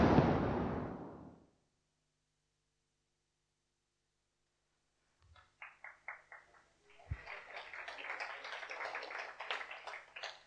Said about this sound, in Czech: Díky moc, ten potlesk patřil určitě jim, ne mně.